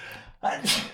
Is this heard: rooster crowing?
no